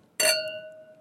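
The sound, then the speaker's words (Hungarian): A single bright clink of wine glasses touching in a toast over a Patacsonyi white cuvée, sharp, followed by a clear ringing tone that slowly fades. No one speaks. “csak reklámmentesen egy patacsonyi fehér küvét fogunk kóstolni mai napon, úgyhogy egészségedre”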